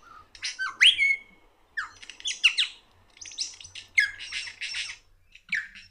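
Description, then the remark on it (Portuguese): A lyrebird runs through mimicked calls of other birds: a quick, varied string of loud squawks, chirps and whistles in separate bursts, clear, with no talking. “É só barulhos diferentes do mesmo pássaro.”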